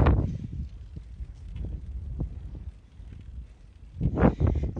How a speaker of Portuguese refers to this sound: Esse é o barulho de alguém se ferrando. Puta merda, muito vento contra. E a tendência à tarde é sempre piorar, o vento fica forte, por isso saí tão cedo. E hoje tá muito forte o vento e tá contra e falta muito.